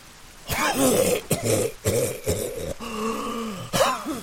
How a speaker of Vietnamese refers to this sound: Nhưng chưa ra khỏi rừng thì Chol đã thấy khó thở và ho khủ khụ.